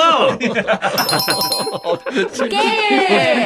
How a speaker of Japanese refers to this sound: なんなの、ペンポンペンポン。DJ みたいになっちゃった。いろんな曲を。いや、いろんな。いろんな音響を。ペンポンもクソもないから、これ。何鳴らしてんのよ。